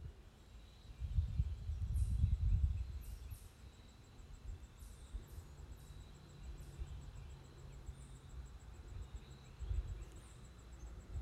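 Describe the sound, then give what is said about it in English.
Quiet woodland ambience: scattered high, short chirps of different animals calling over a steady faint insect-like hum, with a soft low rumble underneath and no talking. “if you think of the, the woods as one entity, it's communicating with itself, but it's basically like these different animals in different areas”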